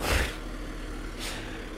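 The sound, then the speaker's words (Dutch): A car passes by, a soft low rumble and whoosh at the start that fades quickly, followed by a faint hiss of traffic noise, with no one speaking. “Eh, hallo auto.”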